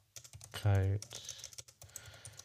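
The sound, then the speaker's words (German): Rapid clicking of keys on a computer keyboard while someone searches for Instagram accounts, with a brief louder voiced burst early on amid the steady clatter of typing. “Also es klingt jetzt bestimmt lustig über das Mikrofon, wenn die die Tastatur hören.”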